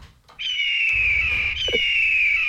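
A loud, piercing eagle cry holds a shrill high pitch for about two seconds, briefly catching and restarting midway, heard alone over a faint low rumble.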